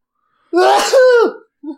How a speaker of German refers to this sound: Warte, jetzt muss ich niesen. Oh Mann. Gesundheit.